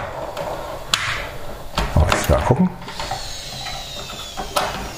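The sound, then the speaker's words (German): A capsule coffee machine brewing, with a run of rattling mechanical clicks and knocks in the middle and a thin, steady whine above, while a voice speaks briefly. “Macht ja einen Lärm. Naja, immer noch besser als eine Kaffeemaschine mit Mahlwerk, die macht ja richtig Krach.”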